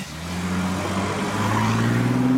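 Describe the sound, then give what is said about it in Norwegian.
An electric car rolls past with a low, steady motor hum that rises slightly in pitch over road noise, continuous, with no voices. “Altså lyden av nesten ingenting, som kjennetegner mange av bilene som kjører på norske veier.”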